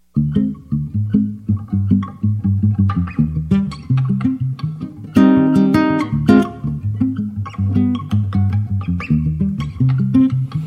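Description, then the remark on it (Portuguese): A solo acoustic guitar plays a flowing, fingerpicked song intro at a steady rhythm, with a brighter strummed passage midway. The playing is moderately loud, with no voices. “canta acompanhado só pelo violão”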